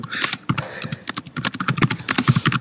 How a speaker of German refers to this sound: Philipp, was tippst du denn da?